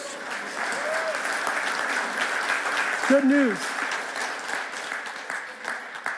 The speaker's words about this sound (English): You can clap for that. That's good news.